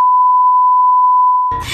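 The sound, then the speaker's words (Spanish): A phone gives a single loud, steady electronic beep lasting about a second and a half for an incoming call, then it cuts off into a brief burst of rough, noisy static. No one speaks. “Ah, espérense que me está llamando por teléfono.”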